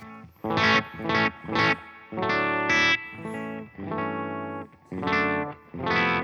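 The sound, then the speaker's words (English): A clean electric guitar amp preset, one of seven presets for the Mark II, plays alone: three short strummed chords, then longer sustained chords and a few more short stabs, bright and steady with no talking. “So yeah, um, we're on the page for the Mark II. Yep. I have seven presets here.”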